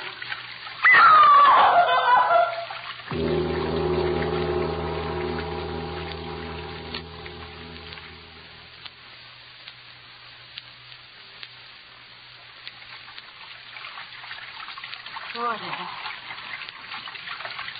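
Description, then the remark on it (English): Rushing water opens with a loud, churning splash, followed by a steady low droning hum for several seconds, then settles into a quieter, continuous flowing wash. “That sound. Running water. Over this way.”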